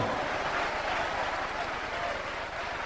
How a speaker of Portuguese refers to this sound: Levante os olhos aos céus, continue aplaudindo e vá dizendo glória, glória, glória a Deus.